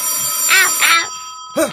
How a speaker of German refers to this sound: Was? Äh, was? Es klingelt. Äh, äh, Telefon.